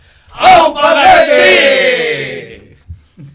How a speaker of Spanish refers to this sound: Así que vamos a despedirnos al grito sagrado que se escucha hasta en Buenos Aires. ¿eh? Buenos Aires y en Donosti también, ¿vale? en, más todavía. una, dos y tres.